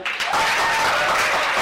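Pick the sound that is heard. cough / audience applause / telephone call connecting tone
audience applause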